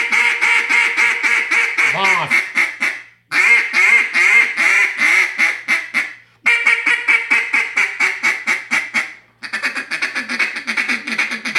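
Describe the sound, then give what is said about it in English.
A raspy Small Talk duck call blown, loud quacks fired off in fast rhythmic runs, four bursts separated by brief pauses, with no talking over it. “Now raspy.”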